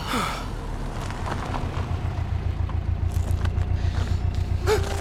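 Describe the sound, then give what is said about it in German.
A vehicle approaches and stops, its engine rumbling low and steady with a pulsing throb that swells slightly louder, plus a few scattered clunks and a brief squeak over the drone. “Jesus Gott, was hockt denn da am Steuer?”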